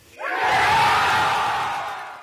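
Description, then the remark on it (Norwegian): A small crowd from an architecture team bursts into loud cheering and excited yelling as they learn they have won an architecture competition and a contract, rising quickly and holding steady at full volume for about two seconds with no clear speech. “Det var jubel hos arkitektlaget Team Urbis da avgjørelsen ble kjent”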